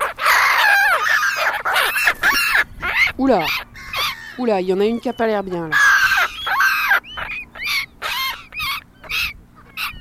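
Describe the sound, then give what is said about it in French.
Black-headed gulls give a run of harsh, squealing alternate calls, repeated in quick irregular bursts, while a person briefly speaks over them. “Mais elles peuvent faire comme ça aussi.”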